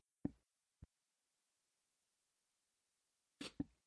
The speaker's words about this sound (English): Sorry, I had a sneeze there.